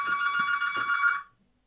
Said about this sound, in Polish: Kolejny telefon dzwonił, no.